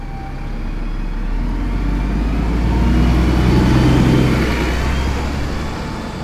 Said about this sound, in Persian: اتوبوس سرعتش رو زیاد و زیادتر میکرد و اون خانم با اون چادر سیاهش شد یه نقطه و دیگه تو سراشیبی خیابونا اون یه نقطه هم ندیدم